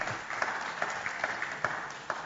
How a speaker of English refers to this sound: thanks for the mandatory applause. I appreciate that. Everyone's like, okay, we'll do that.